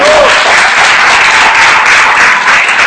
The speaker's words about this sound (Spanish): Un fuerte aplauso para mamá, que está en control de calidad.